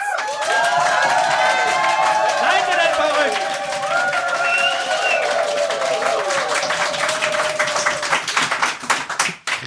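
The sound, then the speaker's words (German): A large live audience applauds and cheers loudly, with dense continuous clapping and rising whoops and shouts from the crowd that carry on for several seconds before thinning out. “Wollen wir den Beweis antreten und brauchen einen Applaus von Schneeger.”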